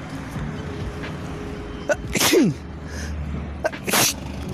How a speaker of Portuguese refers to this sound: E eu acho que eu vou espirrar.